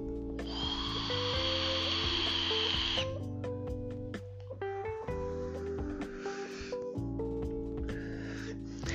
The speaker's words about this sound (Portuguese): Eu peço desculpas por esse barulho porque é, esse é o barulho do meu vape que eu utilizo para parar de fumar.